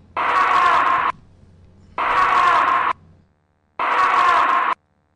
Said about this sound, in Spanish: Eh, volvemos al castillo de Santa Bárbara. Volvemos al castillo y, eso es... Esta vez con una voz femenina. Esto es una especie de alarido, es pero más bien un grito, ¿sí? que yo identifico con Sálvala.